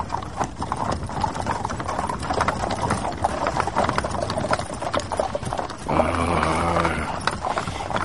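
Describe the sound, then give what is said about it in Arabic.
Horse hooves clip-clop in a steady, rapid rhythm throughout as a person rides the horse, fairly loud, with a brief tonal, whinny-like sound rising over the hoofbeats near the end. “أنا تعبت من الثنية صحيح راكب على الحصان أما الحق المسافة اللي مشيناها من الحاضرة لبرسك طويلة برشا”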